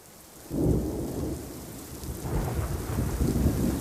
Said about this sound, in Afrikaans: Skielik is daar 'n harde donderslag en dit begin hard reën.